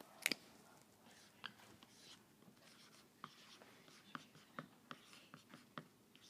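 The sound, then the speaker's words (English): A poor-quality marker squeaks and scratches across a board in short, irregular strokes, fairly quiet, with a sharper squeak at the start and no voices. “This is not a good marker. We'll go with the green.”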